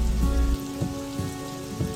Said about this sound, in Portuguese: Encontramos a chuva na estrada.